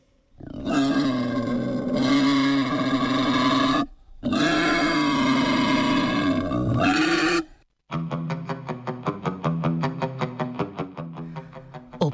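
A wild boar lets out two long, harsh, drawn-out grunting roars, then breaks into a rapid series of pulsing grunts. Loud and alone, with no talking.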